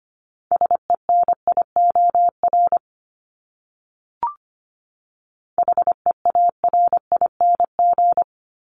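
Morse code beeps spell out words at 25 words per minute in a steady mid-pitched tone, keyed in quick dots and dashes. Two separate bursts are split by a short pause and a small click, with no voices.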